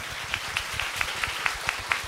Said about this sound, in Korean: 우리 하나님께 영광의 박수를 올려드립니다.